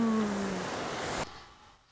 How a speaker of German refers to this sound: Eine Welle.